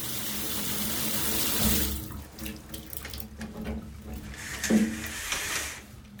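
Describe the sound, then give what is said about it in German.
Shower water runs in a dense, steady hiss for under two seconds, then cuts off, leaving drips, splashes and soft clattering in an echoey bathroom. “Ich komme gerade aus der Dusche, als die Badezimmertür sich öffnet.”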